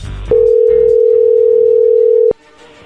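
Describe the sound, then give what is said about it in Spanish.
A telephone ringing tone as a phone call goes through: one steady, loud, mid-pitched electronic beep that holds for about two seconds and then cuts off, with faint low background noise before and after. “A ver, ya entró ahí la llamada, tu modelo, le va a llamar el lobo.”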